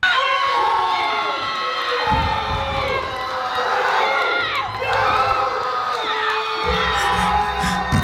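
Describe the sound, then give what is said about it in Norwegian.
A large crowd erupts in loud, sustained cheering and shouting as a man lifts 501 kilograms, a dense roar of many voices with high-pitched yells and whoops that stays intense throughout. “Og da, Vi kan jo bare høre da når han endelig klarer å løfte 501 kilo.”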